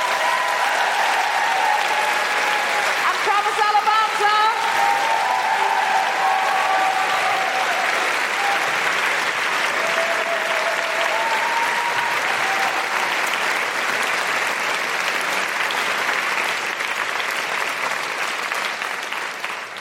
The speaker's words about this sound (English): Um, I really, really appreciate you coming out tonight. Uh, a big, huge round of applause for Holly Harrison Mullane.